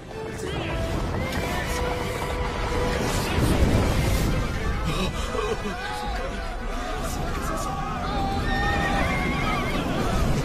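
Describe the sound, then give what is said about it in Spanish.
Several horses neigh and whinny repeatedly over a steady rumble of hooves and rolling chariot wheels, with a busy murmur of voices in the background throughout. “¡Carro de Israel y sus caballos!”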